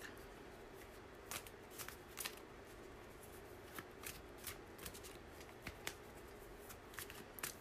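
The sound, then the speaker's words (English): Tarot cards being shuffled for a weekly reading in a steady stream of soft riffling and sharp flicks, fairly quiet, with irregular crisp snaps over a low background hum and no talking. “every week, when I pull the card for the week, I place it on my dresser”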